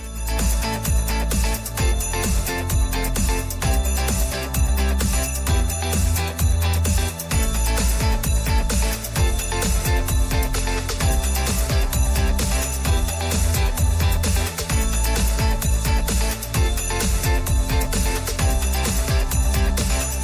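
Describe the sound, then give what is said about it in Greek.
Loud, dense music plays continuously on Rythmos Radio, with little bells jingling along in the background, a bright tinkling layer over a steady heavy beat. “Να ακούγονται και τα καμπανάκια από πίσω.”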